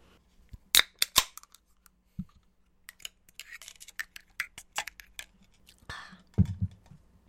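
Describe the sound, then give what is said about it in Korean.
A can of Carlsberg, a Danish beer taken from the fridge, is handled with several sharp metallic clicks and light taps, then popped open with a brief fizzing hiss followed by a soft low rumble. No one speaks. “저는 지금 냉장고에 있던 게 칼스버그가 있어가지고 덴마크 맥주 칼스버그가 있어서 이거를 먹어볼게요.”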